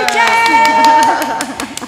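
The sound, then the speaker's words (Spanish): Applause in steady rhythmic claps, roughly four per second, moderately loud, with a sustained voice or tonal sound running underneath. “Con aplausos.”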